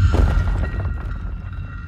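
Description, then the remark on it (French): Gritty scraping of claws, apparently larger than a cat's, dragging over stone, fairly loud, with a heavy low rumble underneath and irregular scratchy strokes running continuously for a couple of seconds, no voices. “Des bruits de griffes sur la pierre.”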